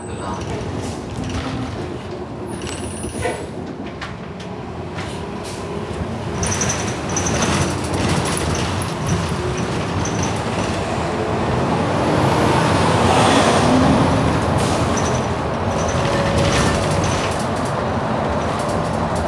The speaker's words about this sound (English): and the sound of OC transpo buses driving over potholes